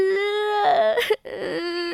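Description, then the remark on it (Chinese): A voice imitating a baby crying, voicing a little white rabbit crying as it hugs its mother: one long, steady high-pitched wail that breaks into choppy, wavering sobs, stops for a brief moment, then resumes as loud, fluttering crying. “不哭不哭，宝宝乖，宝宝不哭啊”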